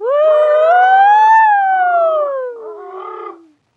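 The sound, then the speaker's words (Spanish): A pack of dogs howl together, presented live from the La Paloma factory, in one long, loud, sustained wail that rises slowly, peaks, then slides down, with extra overlapping voices joining near the end before it cuts off. “Chao, ya me voy, los dejo con sonidos de jauría presentando en directo desde la fábrica La Paloma.”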